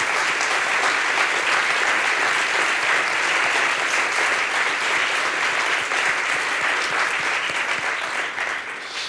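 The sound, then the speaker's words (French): A crowd claps steadily for about nine seconds, a dense, even wash of many hands with no pauses and no voices, easing off only slightly at the very end. “Est-ce qu'on pourrait applaudir les partenaires quand même du Paris Podcast Festival”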